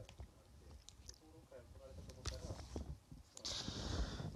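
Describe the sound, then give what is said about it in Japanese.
Chewing of a soft-baked Country Ma'am cookie after midnight, with moist mouth clicks and soft crunches repeating irregularly, loud, while a voice murmurs quietly at times. “早く寝て起きなきゃいけないし、そう言いつつ、今カントリーマーム食ってるし、なんやねんっていう。”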